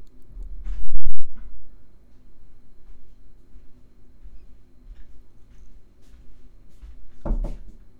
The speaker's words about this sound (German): Es hat geklopft.